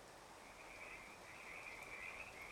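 A steady chorus of frogs croaks continuously, a dense trilling drone that holds at an even, moderate level throughout, with no talking.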